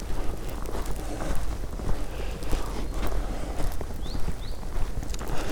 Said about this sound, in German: Sondern lieber hier ein bisschen weiter durch den Wald stampfen.